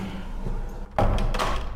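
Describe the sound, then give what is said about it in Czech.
A heavy old, still-functional prison cell door swings shut, locking a person inside, with a single loud, resonant clang and thud, followed by a brief metallic rattle as it settles. “Ještě tady mám takovou zajímavost, tyto dveře, které jsou stále funkční.”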